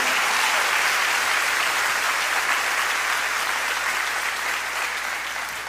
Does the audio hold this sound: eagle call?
no